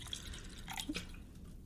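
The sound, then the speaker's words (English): A short splash of punch being poured from a plastic bottle into a glass, a few quiet drips and trickles, with no one talking. “Uh, if I uh, can tell you the plastic bottle he's pouring it from.”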